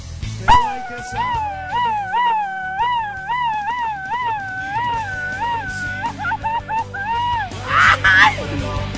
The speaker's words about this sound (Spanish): Pues aquí, güey, para echar un grito. A ver, eh, igual que el de tu hermana, güey, así, largo y profundo y como con ardor, güey.